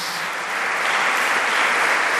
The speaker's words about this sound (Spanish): Y ahora el aplauso es para su familia, ¿eh? de veras, de veras.